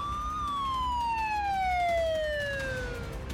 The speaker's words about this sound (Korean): 이 중 한 발은 남북 분단 이후 처음으로 동해 NLL 이남 울릉도 인근 공해상에 떨어졌습니다. 울릉도 전역에 공습경보 사이렌이 울리면서 초긴장 상태에 빠졌습니다.